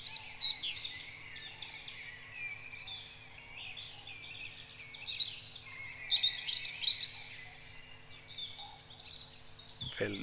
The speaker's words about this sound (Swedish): Och oftast så, och det hörde man ju där också, så har den då på natten kompis, kör han med en liten fågel som heter rödhaken. Som Erik Rosenberg, som jag sa tidigare, han beskrev det som en porlande vårbäck med hisnande höga toner.